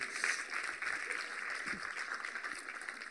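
Steady audience applause, a dense wash of many hands clapping at an even level for the whole few seconds, with no voices standing out.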